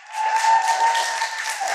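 audience cheering and applause

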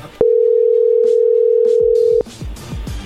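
telephone dialing a call

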